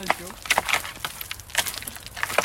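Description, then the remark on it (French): A stick strikes a small almond tree twice, and about 200 almonds drop: many quick, sharp woody clicks and patters in an irregular burst, fairly soft overall. “Bah, je pense que là, déjà, avec deux coups de bâton, il doit y en avoir au moins 200 qui sont tombés.”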